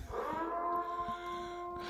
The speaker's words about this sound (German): Oh, jetzt fällt mir natürlich hier gerade ein, ist das jetzt überhaupt angebracht, so eine Sirene an, in diesen Tagen?